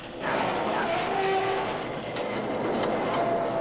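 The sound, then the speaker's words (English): A train braking on the tracks for a pile of logs ahead: a loud, steady rushing roar of wheels and rails with thin, faint metallic squeals drifting in and out, continuous for a few seconds with no voices. “Something on the tracks ahead. Holy mackerel, it's a pile of logs. Put on the brakes, quick.”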